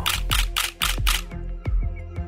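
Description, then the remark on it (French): A camera shutter fires in a quick burst of five crisp, bright clicks, followed by several softer, more widely spaced clicks over a low hum, at a photography festival in Chamonix. No one speaks. “Écoutez la photo.”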